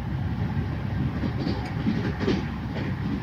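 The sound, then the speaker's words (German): A night train from Tashkent to Bukhara in Uzbekistan rolls steadily along the tracks with a deep, continuous low rumble and faint rhythmic clacking, moderately loud and even throughout, with no voices. “Und ich liege im Nachtzug von Taschkent nach Bukhara.”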